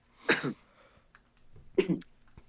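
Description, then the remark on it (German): Two sharp coughs from a smoker about a second and a half apart, each a short harsh burst with a brief rough tail, and no talking around them. “Hast du vielleicht auch Corona, weil du gerade ganz schön viel hustest?”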